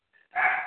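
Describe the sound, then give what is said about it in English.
A dog gives one short, sharp bark right after a faint, brief whine, with no talking. “All right, so uh, sorry about the dogs, guys.”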